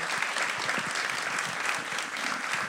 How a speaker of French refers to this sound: C'est un très bon mot de la fin, vous pouvez applaudir.